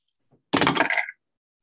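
A faint tick, then a short burst of hard clattering as a die tumbles across a tabletop during an attack roll in a tabletop game, rattling for about half a second before settling with a brief ringing tap; it lands on 12.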